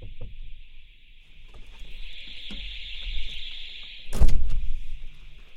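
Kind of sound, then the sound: signal or alarm, fire alarm going off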